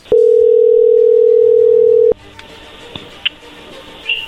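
A loud, steady telephone dial tone hums for about two seconds and cuts off abruptly, leaving a quiet line with a few faint, brief clicks and beeps from dialing.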